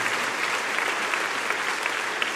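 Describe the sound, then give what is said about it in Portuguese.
A church audience applauds the Lord steadily, a dense, continuous patter of many hands clapping at an even loudness throughout, with no speech over it. “Quem pode aplaudir o Senhor por isso?”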